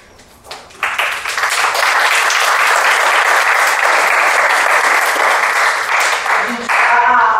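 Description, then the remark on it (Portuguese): Sustained audience applause, a dense crackle of many hands clapping at steady loudness for several seconds after a brief quiet start, with a faint voice surfacing near the end. “os alunos e a, e que agradecem a aplauso.”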